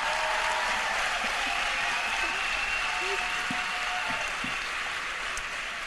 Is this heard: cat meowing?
no